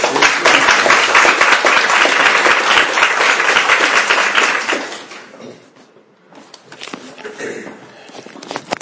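An audience at Rocky Mount Baptist Church bursts into loud, sustained applause for about five seconds to welcome a speaker, then it fades to scattered claps and shuffling with faint murmuring.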